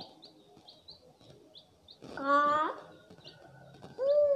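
Thin, high chick-like chirps peep repeatedly at a quick, uneven pace, broken by louder squeaky, tonal cheeps near the middle and end, with faint voices murmuring underneath.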